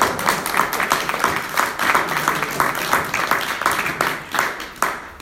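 A crowd breaks into sustained applause for someone's birthday, dense overlapping claps filling the whole stretch at a steady, lively level, with a few voices faintly mixed in.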